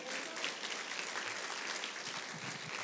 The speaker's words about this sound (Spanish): Aplauda al Rey de Reyes, señores y señores.